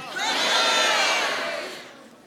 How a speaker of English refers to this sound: So when I count to three, I want you to yell out your name, okay? Here we go. One, two, three.